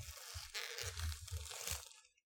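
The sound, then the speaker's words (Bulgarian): Crackling tearing of plastic film wrapping being ripped off a game box in a few quick bursts of crinkly noise, with soft low thumps of handling underneath, lasting about two seconds and then stopping. “Сваляме дрехите и се оказва...”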